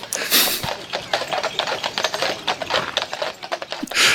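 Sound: horse-drawn carriage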